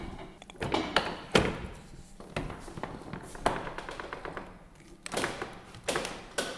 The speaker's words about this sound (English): Right, I'll pull on the bar now, and you should hear the noise that the press makes.